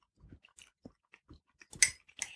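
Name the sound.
people chewing food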